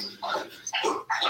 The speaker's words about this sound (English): It's uh, you can actually hear my dog uh, eating his bowl of food in the back right now. It's disgusting. it's, it's like it's soothing meditation.